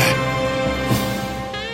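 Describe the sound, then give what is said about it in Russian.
A saxophone plays a smooth, sustained melody, moving through a few held notes at a steady, moderate volume, with no voices. “Не знаю, как вам, а мне очень нравится мечтать под этот красивейший голос – а вот и его обладатель, знаменитый саксофон.”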